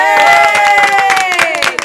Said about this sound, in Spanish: Aplausos para él, vamos.